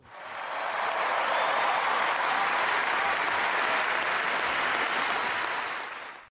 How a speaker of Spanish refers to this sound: La conexión con los jóvenes se hizo notar cuando terminó de hablar, porque de nuevo los más de 11.000 presentes estallaron en un larguísimo aplauso.